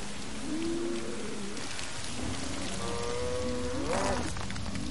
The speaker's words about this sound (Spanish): Un río fluye entre el desfiladero.